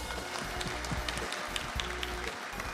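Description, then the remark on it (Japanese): Steady applause from an audience welcoming a guest, a currently active fund manager, onto a sponsored stage: a dense wash of many hands clapping at once, moderately loud and continuous throughout, with no voices standing out. “今日のこのステージのゲストでございます皆さん大きな拍手でお迎えくださいね”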